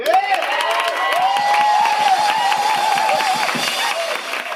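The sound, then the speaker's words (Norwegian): A crowd applauds steadily for the singer at a small concert broadcast on NRK, with dense clapping filling the space and a wavering tone running through it, like cheering or a sustained voice over the clapping. “I'd like you all to join me in giving a warm round of applause to our star”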